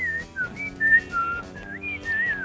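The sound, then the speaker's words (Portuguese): A person whistles a lively, bird-like tune of short rising and falling high notes, clear and fairly loud, with no talking over it. “Ah, ele é um passarinho, entendeu?”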